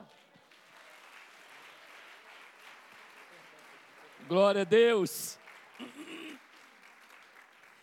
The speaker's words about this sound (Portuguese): Você pode aplaudir ao Senhor nessa manhã?